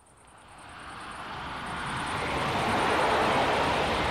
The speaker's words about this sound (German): Herrje, dieser Zug. Ja, der 10.23 Uhr, schon wieder zu spät. Drei Minuten. Also das ist allerhand.